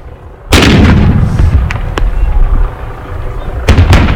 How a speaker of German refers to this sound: Sehr schnell wurde ein Regen von Tränengasgranaten von den Bullen abgeschossen.